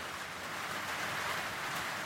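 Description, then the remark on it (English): Heavy rain pours down in a steady, unbroken, dense hiss on Beenham Valley Road in Wolvi, holding the same even loudness throughout with no voices or other sounds. “When it rains heavily in Wolvi, Beenham Valley Road becomes boggy.”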